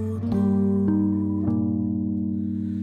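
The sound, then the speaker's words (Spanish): A pututu conch shell trumpet sounds one long, steady blast, a deep buzzing horn tone held loud for about three seconds with a few slight bumps in the note and no talking. “la bondadosa toca su pututu.”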